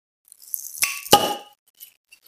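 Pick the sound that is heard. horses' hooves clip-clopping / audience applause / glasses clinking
glasses clinking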